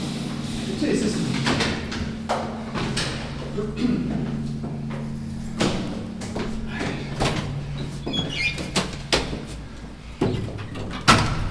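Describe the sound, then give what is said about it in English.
A door is opened and passed through into the space behind a big glass clock face, at the top of a stairway, with a series of sharp knocks, clunks and scrapes against a steady low mechanical hum. Muffled voices can be heard faintly in the background. “Wow, coming through door suddenly, here we are, behind the big glass roundel of the clock face.”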